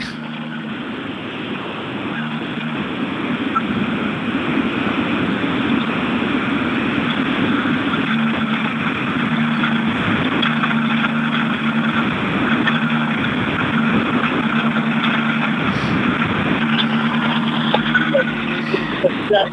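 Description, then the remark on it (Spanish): A rally car engine idles, a steady, rumbling drone that holds constant for the whole stretch, with indistinct voices faintly mixed in behind it. “Llega Iván Ares, sí, sí, dinos. …, sin miedo, métele el micro dentro del coche.”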